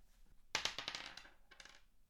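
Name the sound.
dice being rolled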